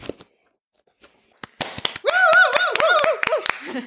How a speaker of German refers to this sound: ja, die Applaus-App, die ich mir noch runterladen wollte. Wir werden das noch einspielen. In der Pandemie braucht man sowas.